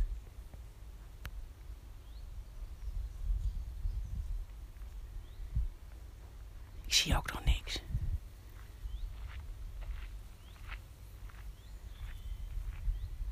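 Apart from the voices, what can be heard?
small birds chirping outdoors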